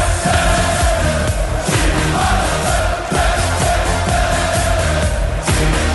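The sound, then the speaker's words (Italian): A stadium crowd of football fans chants in unison the 'po, po, po, ro, po' chant for Gini Wijnaldum, a loud, continuous wall of voices repeating the rhythmic, sing-song phrase over and over without pause. “quali tifosi lo facevano questo coro?”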